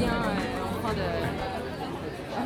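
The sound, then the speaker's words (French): A steady, dense murmur of many overlapping voices, the chatter of people seated on the terrace of the café Chez Prosper, fairly loud with no single voice standing out. “Voilà, on entend un peu. Ouais, déjà, ouais, de la terrasse.”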